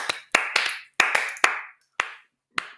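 A short burst of hand clapping, several sharp claps in uneven rhythm that cluster together and then thin out to a few isolated claps at the end, with no talking.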